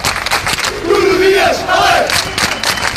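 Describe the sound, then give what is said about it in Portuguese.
A large crowd outside Lisbon City Hall chants the name of Sporting futsal coach Nuno Dias in unison, loud, rhythmic voices rising and falling in repeated two-part phrases over a dense wash of cheering and shouting. “A multidão esperava a comitiva na parte de fora da Câmara e o treinador Nuno Dias foi o mais solicitado.”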